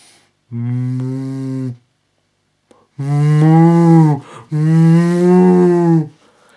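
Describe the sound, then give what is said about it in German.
A person imitates a distressed cow that hears it is to be slaughtered, with three long, loud, drawn-out moos. The first is shorter and followed by a pause, and the last two are longer and nearly back to back, with no talking. “Zum Beispiel die Kuh, die hört, dass sie geschlachtet werden soll.”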